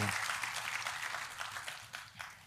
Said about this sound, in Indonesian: Tepuk tangannya boleh sekali lagi yang paling meriah buat Tuhan.